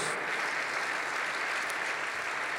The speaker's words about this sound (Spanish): Este abrazo es para ustedes, este aplauso. Gracias por estar con nosotros.